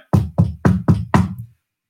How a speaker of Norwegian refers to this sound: Bank i det berømte bordet